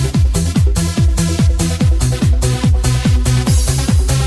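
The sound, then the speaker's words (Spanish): A loud progressive techno track from a DJ session drives forward on a heavy, pounding four-on-the-floor kick, with bright hi-hats and layered synth tones over a booming bassline, with no voices. “Fíjate, sonido tecnoprogresivo, progresivo, base contundente.”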